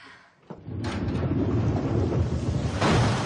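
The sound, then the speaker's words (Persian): A heavy rainstorm one morning over a hill, with a deep, rolling rumble of thunder swelling in after a brief quiet start, steady dense rain hiss throughout, loud, no voices. “یک روز صبح که ماریان و مارگارت از تپه بالا رفته بودند و از مفاخر طبیعت لذت می باران گرفت.”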